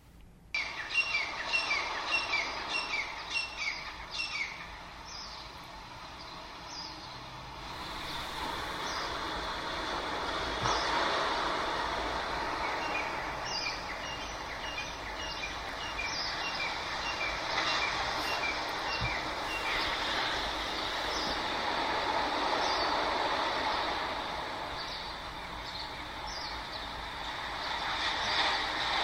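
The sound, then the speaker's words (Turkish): Myna and francolin calls, recorded in the morning, ring out over a steady, rather prominent wash of ocean waves. The louder myna chirps repeat in quick bursts up front, while the francolin calls sit further back, no voices present. “Daha gür çıkan Mina e, kuşunun sesi, çilkekliğin sesi biraz arkada kalıyor.”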